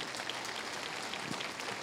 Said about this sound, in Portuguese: Então vamos aplaudir o Senhor Jesus.